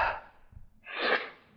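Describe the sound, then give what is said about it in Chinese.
A narrator's voice imitates Chiang Kai-shek yawning: a short breathy burst, a brief pause, then a longer, louder airy exhale that swells and fades out, with no words spoken. “哎，蒋介石打了个哈欠。”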